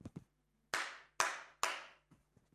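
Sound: hands clapping together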